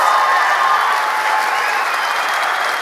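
An audience claps steadily to vote for which story they want to hear, a dense, continuous wash of applause that stays loud throughout, with faint cheering mixed in.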